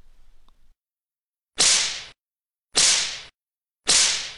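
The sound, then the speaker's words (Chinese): Three sharp whip lashes crack out in a steady rhythm, each a loud, bright burst that cuts off quickly, with silence between them and a faint low rumble just before the first. “妈的，不交钱，老子就抽死你！”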